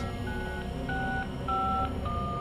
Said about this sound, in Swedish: Du ringer din sambo